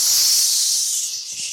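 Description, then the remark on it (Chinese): A voice imitates three kids spraying insecticide at a lit lighter inside a Carrefour store: a continuous, loud, bright hissing "shhh" that holds steady for about a second and a half, easing slightly toward the end. “那他们这三个屁孩呢，就是在家乐福里面啊，用杀虫剂对着已经点火的打火机，然后这样”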